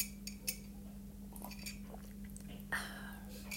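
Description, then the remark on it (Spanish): Quiet sipping of tea: soft mouth and swallowing noises with a slightly longer slurp near the end, plus a faint clink or two, against a low steady hum and no talking. “No, esto ya fue un sorbito de té.”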